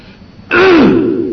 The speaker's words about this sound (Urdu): معاف کرنا کھانسی کی وجہ سے بات کہنے میں بار بار رکاوٹ آ رہی ہے